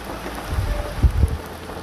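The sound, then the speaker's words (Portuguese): Light rain falls outside on Ash Wednesday in a steady, soft hiss, with a few dull low thumps partway through. No one speaks. “Galera, mais um dia de gravação com a chuvinha, vê se vocês conseguem ouvir.”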